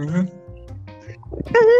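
Dogs bark and whine in short, loud bursts, one at the start and a stronger, higher-pitched one at the end, with quieter sounds between them.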